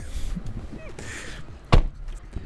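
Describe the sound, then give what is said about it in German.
A car door is opened, needing more force than expected, with a single sharp mechanical clunk from the latch. Low rumbling and faint shuffling noises surround it, with no one speaking. “Wir gehen die Tür auf? Achso. Okay, ich habe ich hab gedacht, es geht viel leichter.”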